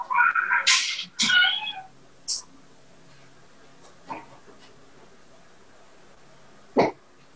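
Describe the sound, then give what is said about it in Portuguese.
A kitten meows twice in quick succession, high and insistent, then gives a few fainter, shorter squeaks spread over the following seconds in an otherwise quiet space. “Tem um gatinho chamando.”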